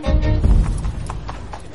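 Two servants ready the horses, their hooves clopping in a loose, irregular rhythm of sharp knocks over a low rumble of movement, with a faint snort or whinny early on.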